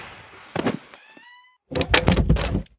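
A heavy door thuds shut with a brief ringing resonance, then a second loud, rattling clatter follows, like a bolt or lock slamming into place. Forceful, with no voices.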